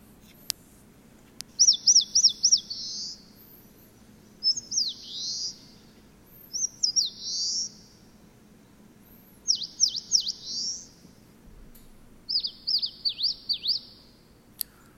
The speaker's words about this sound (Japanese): はい、今聞いていただきましたけども、えー、この鳥の名前ですね、仙台虫食いと言います。仙台虫食い。えー、スズメの仲間でウグイス科なので、まあ、ウグイスの仲間ですね。